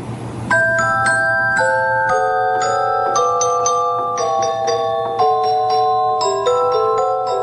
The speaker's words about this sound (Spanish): Pero vamos a escuchar un poquito cómo suena la celesta. Eh, a pelo, sin nada, sin más instrumentos, sin más orquestación, para que entiendas eh, un poquito a qué me refiero. Mira.